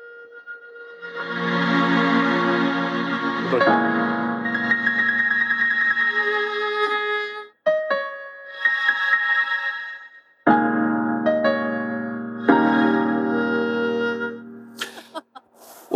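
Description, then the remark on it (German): Sustained electronic tones, triggered by touching bare skin and changing as the touch changes, with rich, buzzing harmonics shift and change pitch in several segments, broken by brief cutoffs, ending in a noisy burst; no one speaks. “Solange ich die Haut berühre, kommen da verschiedene Geräusche. Und die Geräusche ändern sich, je nachdem die Berührung sich ändert.”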